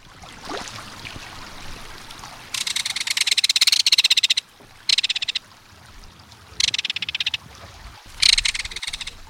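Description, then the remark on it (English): A belted kingfisher gives loud, dry metallic rattling calls in four bursts, one long and three shorter, over a soft background of flowing water. “There's no other sound along a stream or waterway quite like the reverberating metallic call of a belted kingfisher.”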